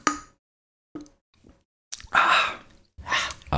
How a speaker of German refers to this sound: Ich sag so. mal Prost und trink mal kurz. Ja, trink mal.